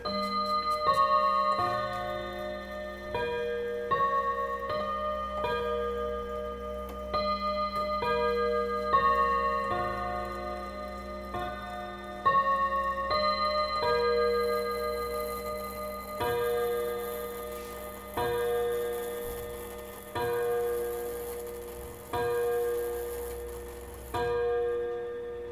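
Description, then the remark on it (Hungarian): A 1930s mantel clock on top of a cabinet chimes the Westminster Abbey melody in clear, ringing tones, then strikes five evenly spaced hour strokes, each bright note decaying slowly, with no talking. “A Westminsteri apátság dallamával most pont egészet fog ütni.”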